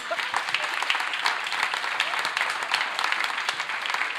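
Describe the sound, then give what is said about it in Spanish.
Steady, loud applause from an audience, given to the Lord, a dense wash of many hands clapping continuously for several seconds without pause or speech. “Déle un aplauso fuerte al Señor.”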